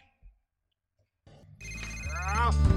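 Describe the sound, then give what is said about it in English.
A telephone starts ringing after a moment of silence, its bright electronic tone building louder over the final second and a half, with a voice mixed in under it. It is a call from Grandpa. “Grandpa calls and says Grandma isn't feeling very well.”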